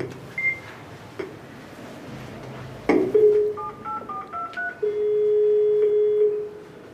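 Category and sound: household object, ringing a doorbell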